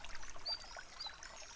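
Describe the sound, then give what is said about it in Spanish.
Water runs and splashes steadily in a soft, continuous hiss, like a shower, with no voices over it. “Mañana por la mañana, por ejemplo, puedes intentar disfrutar de cosas como la ducha, del desayuno.”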